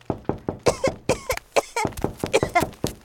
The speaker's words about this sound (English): After a while, Bear heard someone coughing.